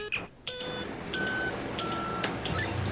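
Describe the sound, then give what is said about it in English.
An old Star Trek computer whirs steadily as it warms up while short electronic beeps and tones sound at irregular intervals, moderately loud, with no talking. “It takes time for this goddamn Star Trek computer to warm up anyway.”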